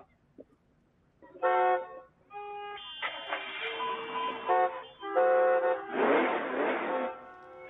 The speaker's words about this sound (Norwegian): ja, som du hører, her er det både tuting og gromme eh, motorer som blir satt i gang.